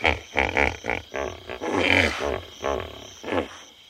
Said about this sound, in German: Insekten, Tüpfelhyänen, Uhus, afrikanische Waldkäuze, Elefanten, das Nagetier Baumschliefer, in der Ferne brüllende Löwen, verschiedene Arten von Fröschen und Kröten.